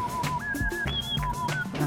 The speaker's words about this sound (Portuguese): Será que as pessoas odeiam esse assobio?